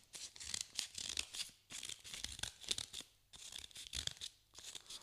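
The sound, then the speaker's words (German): Scissors snip steadily through folded paper, cutting out a pattern freehand to make a paper star: a run of crisp, rustling cuts in quick bursts with brief pauses between them, and no voices. “Jetzt kann das Ausschneiden beginnen, einfach freihändig, oder man malt sich mit dem Stift ein Muster vor und schneidet diese aus.”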